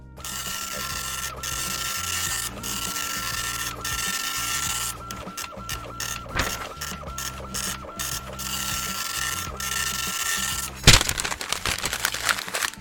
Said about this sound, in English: Uh, all right. So uh, let me just print out your results.